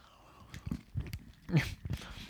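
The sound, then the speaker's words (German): Crunchy biting and chewing on a Ritter Sport Mini chocolate bar from the Christmas edition, with several irregular crackling bursts over a couple of seconds and no talking. “Unser letzter Snack ist die Weihnachtsausgabe von Rittersport Mini.”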